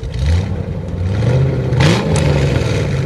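A car engine rumbles and revs up briefly near the middle, its pitch rising and settling again, with a steady mechanical drone throughout and no voices; the car is on a boulevard beside the beach.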